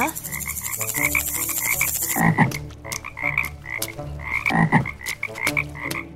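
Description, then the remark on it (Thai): A dense chorus of frogs, bred in a corn field, croaking in steady, repeating pulses, with a couple of louder, deeper croaks standing out against the rhythmic background calls. No one speaks. “ด้วยเหตุนี้ ชายผู้นี้จึงต้องเพาะกบเอาไว้ในไร่ข้าวโพดเพื่อให้กบที่เพาะเอาไว้กินมแมลงพวกนั้นเสีย”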